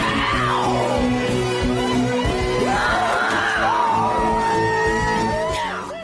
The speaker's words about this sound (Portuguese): Até vou dar um grito contra o sistema.